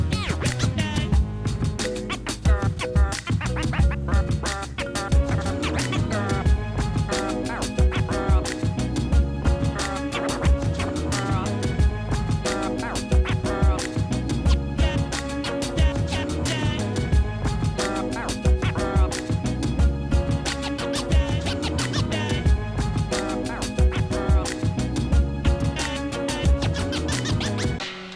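Turntable scratching runs throughout, quick back-and-forth cuts chopping over a dense, loud beat with steady drums and bass, no voices.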